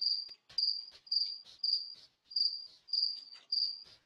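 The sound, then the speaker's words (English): A cricket in a garage chirps loudly and close by in steady, repeated bursts of shrill trilling, about one every half second, with no voices over it. “Yeah, he's chirping and he's just fucking giving it to you.”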